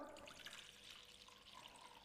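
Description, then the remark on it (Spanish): Water pours steadily into a bowl for a couple of seconds, a continuous rushing, splashing stream heard fairly quietly, with no talking; the water is the first ingredient put into the bowl for making arepas. “Empecemos, a mí me gusta poner el agua primero, hay gente que pone primero la harina, yo pongo primero el agua.”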